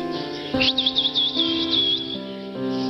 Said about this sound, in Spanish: El hombre sonrió y silbó.